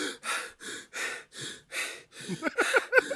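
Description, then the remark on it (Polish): A voice imitates a man breaking into a cold sweat and starting to breathe deeply in panic: six or seven rapid, heavy breaths in a steady rhythm, loud, turning into strained, voiced gasps at the end. “I nagle takie, wiesz, nagle takie taki zimny potnie, tak zaczyna oddychać głęboko.”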